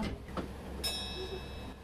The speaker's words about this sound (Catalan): Ara ja sona la campaneta per marxar.